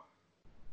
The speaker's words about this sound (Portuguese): Fala de novo que deu uma cortada aqui para mim.